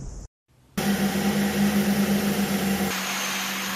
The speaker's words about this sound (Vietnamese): Trên thao trường của lữ đoàn tên lửa bờ 679 vùng 1 Hải quân những ngày đầu tháng 5, dưới cái nắng oi ả, nhưng trên thao trường, lẫn trong tiếng động cơ và mùi xăng dầu của các loại xe chuyên dụng